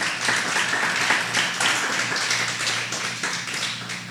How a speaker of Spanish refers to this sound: Si quieren darle un aplauso al Señor, désenlo.